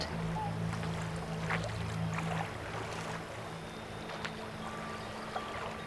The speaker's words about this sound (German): Fanian sitzt in der Mitte vom Boot auf einem grossen, runden Küssi und rudert.